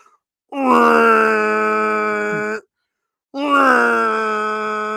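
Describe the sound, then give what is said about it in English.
A voice imitates the Devils' hockey goal horn heard from MetLife Stadium, with two long, loud, buzzing blasts, each held for about two seconds with a short gap between them. “it's the devil's go horn”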